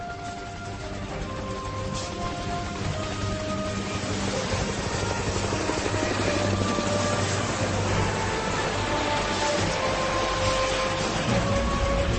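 A helicopter flies by, its rotor churning out a steady, loud roar with a whining engine tone layered on top, holding constant for the whole stretch with no voices.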